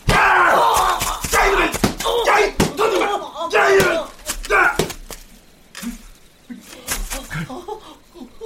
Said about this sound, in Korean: 아이 아, 비, 비, 비명 소리가 이 마, 많이 들어본 소린데 처참한 비명이다.